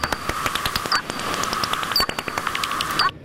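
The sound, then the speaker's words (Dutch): A rapid, steady train of dry ticking bat echolocation calls, like a bat detector's output, over a constant hiss and faint whine, with a few brief chirps mixed in; no one speaks. “Eh, voor de geoefende luisteraar hoor je een iets andere vleermuis.”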